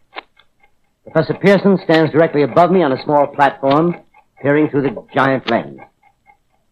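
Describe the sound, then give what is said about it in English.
A faint, steady mechanical ticking, the vibration of the clockwork of a huge telescope beneath an opening in the ceiling, runs in the background while a man speaks clearly in the foreground, the soft regular clicks most noticeable in the pauses. “The ticking sound you hear is the vibration of the clockwork.”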